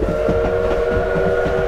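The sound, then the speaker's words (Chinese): A steam train's whistle blows one long, steady, multi-toned note over a loud rumbling chug of the locomotive, with no voices present. It is a steam train that visitors can book to ride at Shuzenji Onsen in Japan. “来到这里，除了泡温泉、逛老街，还可以预定搭乘蒸汽火车哦。”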